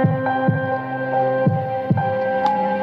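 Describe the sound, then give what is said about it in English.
A deep, muffled heartbeat thumps a few times at a steady, slow pace beneath a sustained low droning hum, with no voices present. “As I made my way to the guest bedroom, I could barely hear anything over my heartbeat.”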